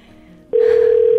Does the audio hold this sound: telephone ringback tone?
yes